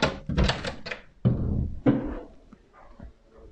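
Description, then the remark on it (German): A door is handled: a few clunks and rattles as it opens, then a heavier thump around the middle as it shuts, with softer shuffling noises trailing off afterward. “Ich mach mal hier kurz auf.”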